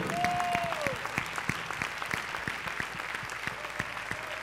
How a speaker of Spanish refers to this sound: Y con este aplauso damos la bienvenida de una manera oficial a toda la audiencia virtual. Fuerte ese aplauso, hermano.